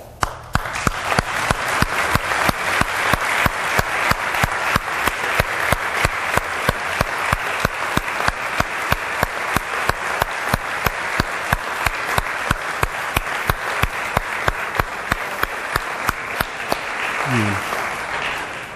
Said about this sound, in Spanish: Darle un aplauso.